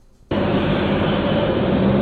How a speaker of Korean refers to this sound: 네, 이게 지금 실제 도로에서 나는 도로로 달리는 소리고요. 음이 들리나요? 네, 뭐 아, 이런 식으로 노래가 어, 노래 소리가 난다는 거예요.